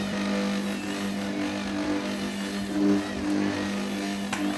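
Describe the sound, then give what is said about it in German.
A steady, low motor hum from a mixer slowly kneading dough, droning evenly for several seconds with a faint rhythmic churn and no voices. “Erstmal schön langsam verkneten.”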